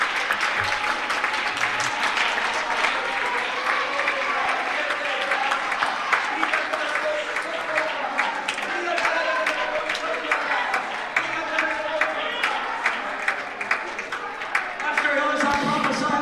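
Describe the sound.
An audience in a church applauds God in a steady, dense wash of clapping that holds at an even loudness for about sixteen seconds, with cheering voices mixed in throughout.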